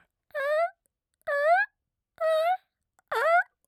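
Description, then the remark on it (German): A voice mimics a marten's call with four evenly spaced, identical wavering hoots, each about half a second long, repeated in a steady rhythm with short silent gaps. “Immer den gleichen Ton.”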